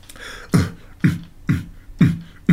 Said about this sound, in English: Listen to those drums. Hmm.